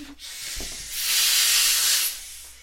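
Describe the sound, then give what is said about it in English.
Air rushes out of a released balloon in a steady, fairly loud hiss lasting about two seconds, swelling after a brief soft thump and then cutting off abruptly. “Donovan just let his balloon go”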